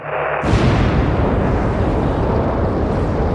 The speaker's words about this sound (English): Rocket engines.